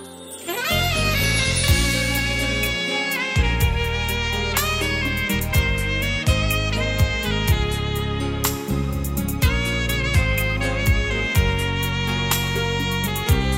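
A pop song plays continuously at a steady, full volume, with a punchy bass and drum beat driving a bright, layered arrangement of sustained melodic parts and shimmering high accents.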